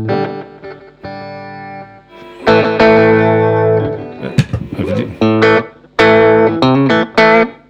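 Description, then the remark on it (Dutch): Electric guitar driven through a King of Tone overdrive pedal with the drive turned fully up, strumming a series of thick, gritty chords that ring out with brief pauses between them, loud and saturated, with a couple of words spoken briefly. “En als ik de distortion helemaal openzet, of de drive, dan... het wil wel. Het klinkt wel goed.”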